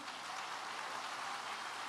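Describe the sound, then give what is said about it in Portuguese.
A crowd at a pastor's talk applauds, at his request, the group who follow every religion: a steady, dense, even wash of many hands clapping at once with no individual claps standing out and no voices over it. “Vamos aplaudir a turma do tudo.”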